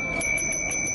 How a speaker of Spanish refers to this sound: Este es el sonido de la campana de los helados aquí en la Plaza de Bolívar.